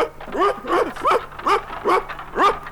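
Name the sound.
dogs barking and whimpering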